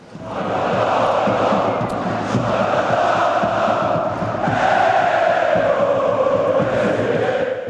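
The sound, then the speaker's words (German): A large crowd of Dynamo Dresden football fans roars and chants together celebrating a 3-2 win against Osnabrück, a dense, steady wall of voices holding loud throughout with slight swells and no pause. “So feierten die Fans nach dem 3:2 gegen Osnabrück.”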